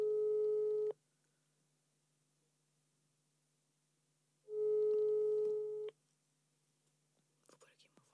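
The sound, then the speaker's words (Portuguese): A phone ringback tone sounds twice, each a steady electronic burst of about a second separated by long silence, the call going unanswered, followed by faint rustling at the end. “Filipa. Tu não atendes.”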